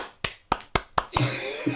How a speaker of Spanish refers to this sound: Bien, un aplauso para contador.